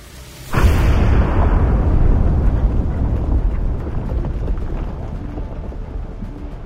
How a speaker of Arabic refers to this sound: تطلق الطائرة قنبلتها التي سماها الأمريكيون ليتل بوي وتعني الولد الصغير تطلقها فوق المدينة ثم تنسحب سريعا لتجنب موجة الصدمة المتوقعة من الانفجار بعد 43 ثانية يضيء انفجار ضخم سماء هيروشيما